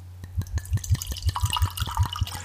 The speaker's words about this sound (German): Es ist noch schöner beim ersten Glas, weil es da noch heller gluckert. Dieses wird das Gluckern immer tiefer, je leerer die Flasche wird?